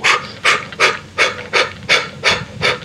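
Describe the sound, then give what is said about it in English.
Rapid, forceful Kapalabhati breathing exhales, pushing the exhale out, about eight sharp breathy puffs in quick steady rhythm, fairly loud, with no talking. “There's there's lion's breath, there's Kapalabhati, yeah, um, where you're kind of breathing like”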